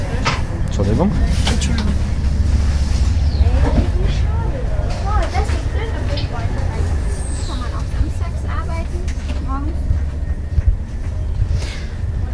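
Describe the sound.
Steady low rumble of a moving passenger train heard from inside the carriage, with indistinct voices murmuring over the constant drone of the ride.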